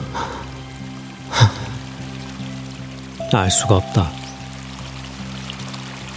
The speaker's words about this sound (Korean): 잠결에도 바위 틈을 흐르는 물소리가 졸졸하고 언제까지나 귀에 어렴풋이 들려왔다.